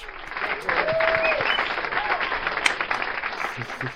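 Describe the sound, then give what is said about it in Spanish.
A sustained burst of crowd applause, dense and steady for the full four seconds, with a few faint whistles or shouts rising over the clapping. “Un aplauso a mi notauro lo tenemos.”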